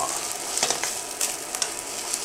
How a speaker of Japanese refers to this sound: いい感じにいい感じになってきましたもうちゃんとパラパラなんだよなこれがすごいんだよね冷凍チャーハンねこれ適当にやるだけでちゃんとパラパラになるんですよねこれがほんとすげえな